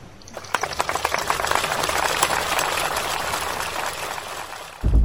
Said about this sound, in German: Den Applaus aus unserem Vorspann bekam James Cronin, Physiknobelpreisträger des Jahres 1980